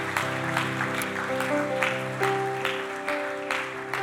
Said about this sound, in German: Lasst uns das gerne gemeinsam feiern mit einem Applaus.